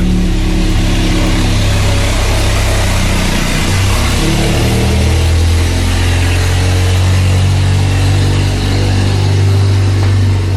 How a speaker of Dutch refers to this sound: Op het anders zo stille Saba kon Rita Johnson al van verre het geluid van de jeep horen